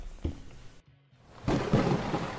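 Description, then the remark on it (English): A thunderstorm with heavy rain hissing steadily, a brief lull, then a deep rolling rumble of thunder swelling loud and close. No voices. “Our magic put a storm in the sky that has rendered the surface of our planet uninhabitable.”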